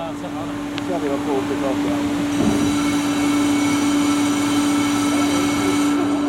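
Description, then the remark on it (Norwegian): Construction workers inside the Havrommet building removing mould and damp from the ceiling: a loud, steady machine drone with a strong low hum runs throughout, with faint voices and scattered clatter early on. “Dette er lyden av bygningsarbeidere som prøver å fjerne sopp og fukt fra taket.”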